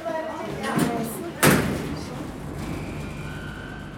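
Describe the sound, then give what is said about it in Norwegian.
An antique elevator door at Oslo's city archive, in premises where Nora Fabrikker once produced soda, is pulled shut by hand: a short rattle, then one loud metallic slam that rings briefly, followed by a steady low hum. A voice is heard faintly at the start. “Lukker man den manuelt,”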